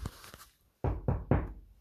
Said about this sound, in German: Nicht lange, so kam es an ein Haus, dessen Fenster erleuchtet waren. Es klopfte an